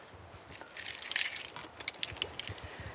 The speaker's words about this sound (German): Autotür zu. Thermoskanne in die Hand. Abgeschlossen und einfach mal den Alltag hinter mir lassen, auf in den Wald.